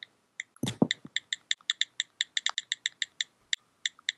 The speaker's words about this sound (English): oh, I just heard it. It's yeah. clicking. It or maybe I do have it on. Do I have it on? Now I got to check. Click, click. Oh, yeah, I do.